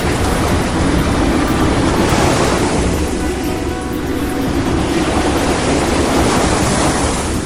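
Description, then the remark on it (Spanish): A loud, steady roar of rushing sea water surges without pause, like huge waves churning and pouring, as the sea parts into 12 tunnels. No voices are heard. “El mar se está partiendo en 12 túneles, uno para cada tribu.”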